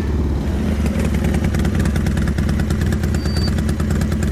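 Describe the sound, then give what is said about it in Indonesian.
A motorcycle carrying three people to the market at 7 in the morning runs steadily, its low rumble pulsing in a fast, even rhythm with a faint rattly clatter throughout. No one speaks. “Kami bertiga pun menggunakan motor pergi ke pasar.”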